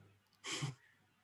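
A single short, breathy snort, a sharp huff of air pushed out through the nose, standing alone against a quiet background with no talking.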